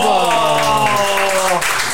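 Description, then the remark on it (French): Audience applause during the live show Bienvenue dans ta face, a dense steady wash of clapping at a fairly loud, even level, with a voice sounding over it before it tapers slightly near the end. “Ah mais vous pouvez applaudir hein,”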